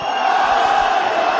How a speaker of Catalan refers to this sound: Aquest, aquest ja és, és un crit de provocació, quasi. Eh? Sí, i aquesta és la resposta de les joves. És un càntic provocador, però que mostra clarament el que ha passat avui.